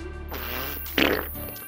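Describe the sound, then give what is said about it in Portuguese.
A single drawn-out fart, low and rumbling, with a louder, sputtering burst near the end, from a person who has stopped during a jog around a small square, with no talking. “Tô dando aquela primeira voltinha na pracinha e aquela vontade de peidar, que você até para, né, pra peidar, vai.”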